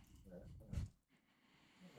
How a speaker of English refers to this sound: I'm sorry, you guys probably hear my dog snorting in the background.